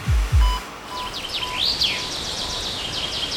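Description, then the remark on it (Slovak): Forest ambience in Slovakia with birdsong: a bird repeats quick, rising and falling chirps over a steady outdoor hiss, after two brief low thumps at the start. “Áno, je to les.”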